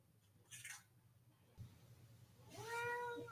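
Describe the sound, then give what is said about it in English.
A cat named Tom meows, a short cry early on followed by a louder, drawn-out meow with clear rising harmonics near the end, over a low background hum. “This is my cat, Tom.”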